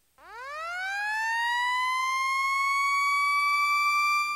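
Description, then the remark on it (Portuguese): A Diponto digital rotating alarm siren, a sound alert system, winds up from a low pitch into a steady, piercing high tone, loud, holding its rich harmonic wail for several seconds with no voices. “Sirenes rotativas digitais e audiovisuais, campainhas de prato e sinalizadores visuais de advertência.”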